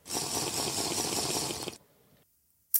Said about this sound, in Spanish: Repito, este es el momento en que vosotros decís, wow, qué guay es hidratarse. Y cogéis vuestra botellita de agua y pista, os hidratáis.